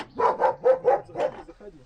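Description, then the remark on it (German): A dog barks in a quick run of about six sharp, evenly spaced barks, loud, trailing off into a softer final yelp. “Das äh, ist So ein typischer Moment, ja, drin ist ein Hund.”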